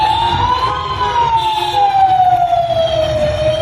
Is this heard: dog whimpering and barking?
no